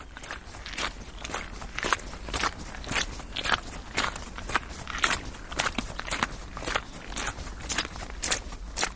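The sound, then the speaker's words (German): Steady footsteps squelch and crunch along a wet, muddy forest path soaked by the weather, about two steps per second, moderately loud with no talking. “Die Folgen des Wetters spüre ich bei fast jedem Schritt.”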